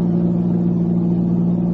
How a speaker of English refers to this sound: Hey, look. It's a car pulling out from the lodge road.